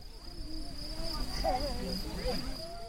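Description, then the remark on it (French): Field crickets chirp steadily in a continuous high trill across the whole scene, with faint, indistinct voices murmuring underneath, among steep mountains at 1200 metres altitude near Pilon in southern France, at the border of the Alps and Provence. “Partout, des montagnes escarpées et dans mes oreilles, le son des grillons champêtres.”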